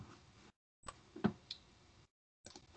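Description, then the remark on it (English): A ticking timer clock, started to time a discussion segment, soft, with a few sharp ticks over a faint hiss, broken by brief silent gaps. “So with the first discussion of our of our episode, we have, and I will as soon as I say the team name, I will start the clock.”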